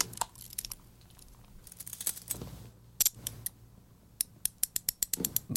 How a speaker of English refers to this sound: It's a uh, handcuffs. Oh, yeah. Uh, being clicked in.